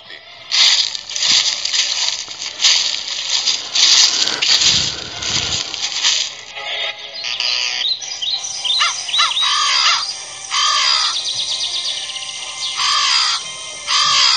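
Several crows caw harshly and repeatedly, loud, their calls overlapping in a noisy chorus that continues throughout with brief bursts of chirping mixed in.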